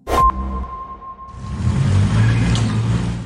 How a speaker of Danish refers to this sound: Det her det er lyden af Danmarks første førerløse bus, som ruller ud senere i dag på Astrupstien i Aalborg. Det kan samtidig blive starten på fremtidens fragt af os fra A til B.